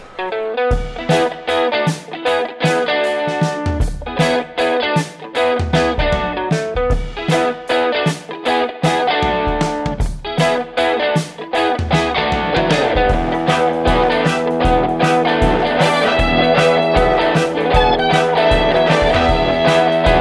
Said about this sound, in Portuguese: Solta a vinheta.